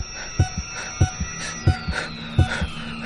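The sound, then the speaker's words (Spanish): A steady heartbeat heard remotely at a monitoring headquarters, four double lub-dub thumps in about three seconds, low and distinct over a faint electronic hum and whine. “En la central escuchan los latidos.”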